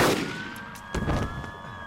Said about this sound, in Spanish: Le atraviesan el pecho con una única bala, y antes de caer ya está rodeado de patrullas que le quitan el arma